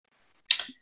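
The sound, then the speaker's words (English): A single sharp sneeze bursts out after a moment of near silence, a quick explosive blast that trails off into a brief breathy tail, alone. “Bless you.”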